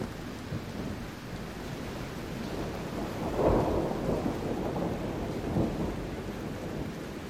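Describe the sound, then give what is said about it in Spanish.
A rumbling roll of thunder from a lightning strike that entered through a pole of a house by a sports field, at 4:30 pm on 24 October 2002, over steady rain-like hiss, swelling into a louder burst midway and a smaller surge after, with a continuous deep low-end rumble and no voices. “Un estruendo similar al sonido de una bomba paralizó y tumbó a todos los que se encontraban en la cancha.”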